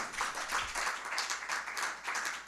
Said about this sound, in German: Und ja, zwar klatschen Sie ruhig, Sie dürfen sich artikulieren. Klar, wenn Sie was gut finden